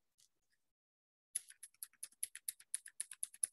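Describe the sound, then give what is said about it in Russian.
A clicky mechanical keyboard switch, with a metal plate inside that makes the click when pressed, is pressed over and over, a quick, steady series of sharp, bright clicks, fairly loud, after a single stray click and a short pause. “А, это не всем нравится, и, в общем-то, в офисе не рекомендуют использовать кликающие клавиатуры, потому что есть риск, что клавиатура полетит в вас.”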